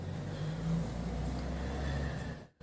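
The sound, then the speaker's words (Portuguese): A car engine rumbles steadily as the car arrives, swelling slightly in a brief rev before cutting off abruptly near the end. No voices are heard. “E o carro que aparece é daquele colega dele que você sempre desconfiou.”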